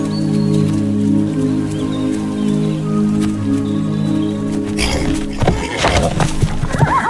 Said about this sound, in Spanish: Otro dato es que para los caballos utilizaron sonidos que fueron reales, fueron tomados de caballos de verdad. En ningún momento se utilizó vocalizaciones humanas para recrear los sonidos de los animales.